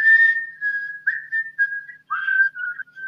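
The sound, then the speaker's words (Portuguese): A clear whistled tune: sustained pure notes that glide and step between pitches in short phrases, like a film theme, with brief pauses and no talking. “lembrando do, da trilha do Kill Bill, que também é outra”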